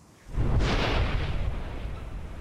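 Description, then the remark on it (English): A distant peal of thunder over a foggy coast opens with a sharp onset and a heavy low rumble. It then rolls on as a sustained, broad roar that slowly fades without stopping. No voices are heard. “In the distance, Kalina, there's a peal of thunder, and dense fog suddenly covers this entire section of coast”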